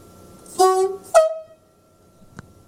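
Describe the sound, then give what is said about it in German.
A train cab whistle sounds twice, first a lower, steady toot lasting about a third of a second, then a higher, shorter blast that fades, followed by a faint click. “Ja, dann noch unsere Pfeife. Unsere Pfeife”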